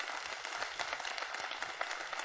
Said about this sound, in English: I dare you to clap your hands like you believe that today.